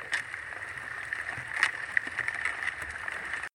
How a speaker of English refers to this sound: And as they sang the words, Reb Shmelki and Reb Moshe Leib, the little boat glided easily between the blocks of ice